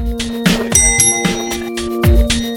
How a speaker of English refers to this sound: Oh, ring the bell